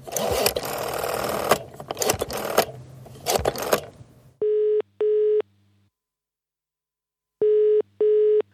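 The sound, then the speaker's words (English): A British-style telephone ringing tone sounds in two double-pulse bursts, steady and clear, with a pause between them, after a few seconds of rattling mechanical noise. “Why does it sound like I'm using a phone in the UK?”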